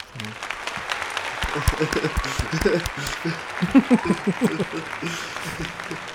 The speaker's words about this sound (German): Vielleicht auch mal einen Applaus für die uh. beiden.